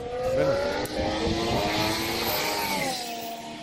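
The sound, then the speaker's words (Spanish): A Formula 1 engine screams at high revs, its harmonics rising and falling as it shifts through gears, loud and continuous for the whole stretch with no one speaking. “Además, déjalo, déjalo de fondo, porque yo estoy acostumbrado a escuchar el motor, a mí no me molesta, bravo.”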